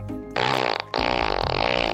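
A loud, raspy fart sound in two bursts: a short blast, a brief gap, then a longer, sustained buzzing one that carries on to the end. No talking.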